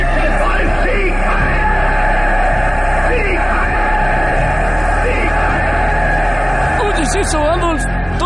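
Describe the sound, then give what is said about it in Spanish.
A large crowd cheers and shouts loudly and without pause, acclaiming a leader and shouting his name, many voices yelling together, with individual rising shouts breaking out near the end. “Te aclaman. Gritan tu nombre por todas partes.”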